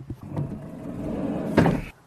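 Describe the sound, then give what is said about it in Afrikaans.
A car's heavy sliding side door rolls open with a sustained rumbling scrape, ending in a sharp clunk as it latches; fairly loud, with no voices. The sliding door takes a bit more muscle to open than ordinary swing doors. “Net een ding, die sydeure vereis 'n bietjie meer spierkrag”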